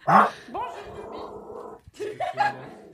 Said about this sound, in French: Oh, le petit chien qui aboie